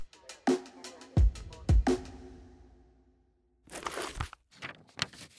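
Crisp paper rustling as a man slowly turns the pages of his diary one after another, a few sharp flicks and crinkles, then a brief quiet pause before more rustling resumes. No voices.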